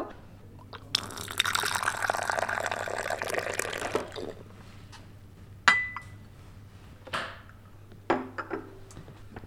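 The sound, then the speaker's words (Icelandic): Café background at a popular spot in a café, with a rush of pouring or running liquid for a few seconds, then several sharp clinks of cups and glassware ringing out at intervals over a steady low hum. “nú erum við sest hérna í horni. Þetta er svolítið vinsæl staður hérna á kaffihúsinu.”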